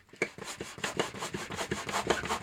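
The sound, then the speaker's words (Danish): An orange hand pump inflating a balloon, with quick, steady strokes: about ten airy, rasping whooshes in a row, each a short rubbing push. No one speaks. “Du pumper løs med sådan en orange pumpe?”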